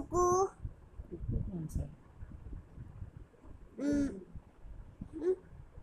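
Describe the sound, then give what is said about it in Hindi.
A young girl's voice mimics a cuckoo's call, naming it among birds that come to her home, with a few short, hooting tonal notes spaced by pauses, with quieter murmured talk and background noise in between. “मेरे घर पे पंछी आते हैं कबूतर चिड़िया कुकू”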